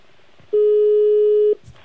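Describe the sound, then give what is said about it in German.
A single steady electronic telephone tone as a phone call connects, a connecting beep lasting about a second, loud and mid-pitched with faint harmonics, followed by brief soft noises. “Äh, so, ich glaube, die Verbindung kommt gerade zustande.”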